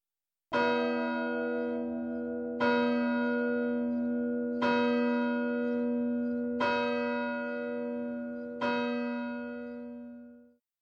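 A deep church bell strikes midnight, tolling five times at a slow, steady pace, each strike ringing out and overlapping the lingering hum of the last, with no voices present.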